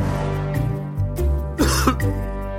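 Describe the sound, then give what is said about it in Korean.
A person coughs and clears their throat several times in quick, rough bursts, fairly loud, with no speech, after singing in a voice that is not their usual one. “기침이 나와요”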